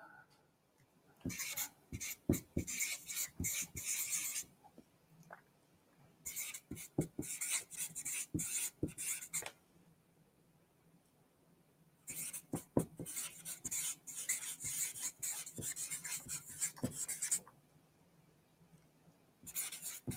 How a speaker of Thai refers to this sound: เดี๋ยวระหว่างนี้เนี่ยเดี๋ยวผมขออนุญาตวาดสามเหลี่ยมนี้ไปด้วยนะครับ ในระหว่างที่รอพี่ๆตอบนะครับ